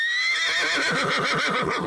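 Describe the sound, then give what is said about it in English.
A loud horse whinny with a quavering, wavering pitch that rises and shakes rapidly over about two seconds, heard alone without any talking. “This podcast may contain horse language.”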